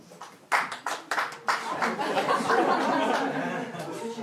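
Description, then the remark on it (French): A stand-up comedy audience breaks into clapping in answer to the comedian's question about who does not care about the pension reform. A few scattered sharp claps quickly swell into steady, sustained applause mixed with some crowd murmur and light laughter. “Allez Est-ce qu'il y a des gens par applaudissement qui n'en ont rien à foutre de la réforme des retraites”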